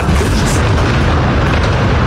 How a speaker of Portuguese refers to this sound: ele estava fazendo uma passagem em frente à Lesc no momento da explosão e a gente consegue ouvir, inclusive ele ficou bastante assustado ali, dá pra ver uh, na expressão dele. A gente vai ouvir agora. O avião